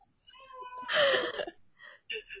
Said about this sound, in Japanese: 子供が爆泣きしてますが、ラジオ続けます。